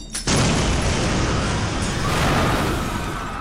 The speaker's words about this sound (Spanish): Las explosiones esporádicas resonaban como un cruel recordatorio de la devastación que asolaba al mundo exterior.